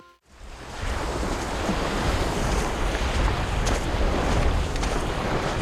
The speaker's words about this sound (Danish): Du er ved Skagen, på vej ud til grenen. Det er tidligt på dagen, men de første folk er allerede ankommet, og man kan høre svage stemmer, der bæres af vinden mellem klitterne.